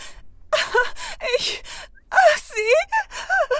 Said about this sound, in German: Jetzt fängt sie auch noch zu weinen an.